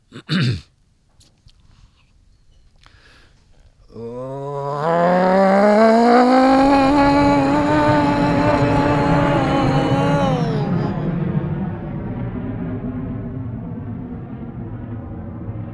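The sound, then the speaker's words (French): A voice imitates a fighter jet passing overhead: after a short click, a loud droning roar rises in pitch, holds steady for about ten seconds, then eases off slightly. “C'est un avion de chasse C'est quoi ce truc en plus, il a aucune lumière, c'est bizarre.”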